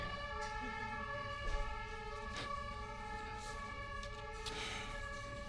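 A loud, steady emergency siren blares continuously over busy street ambience at the Kottbusser Tor square in Berlin, with traffic rumble and a few brief clatters in the background; no one speaks.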